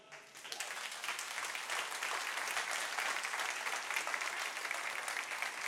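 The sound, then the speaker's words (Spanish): A church audience at Iglesia Teópolis applauds steadily to welcome those joining from home, a dense wash of many hands clapping that starts abruptly and holds at an even, fairly loud level throughout, with no voices heard. “Bienvenidos a Iglesia Teópolis y le damos la bienvenida a todos los que se conectan a través de la iglesia en casa con este aplauso.”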